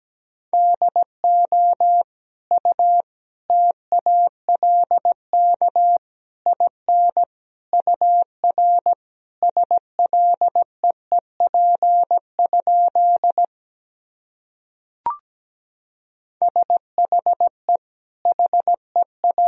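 Morse code tones at a steady 17 words per minute, a single clear pitch keyed into quick dots and dashes, with a brief pause and a sharp click before the beeping resumes.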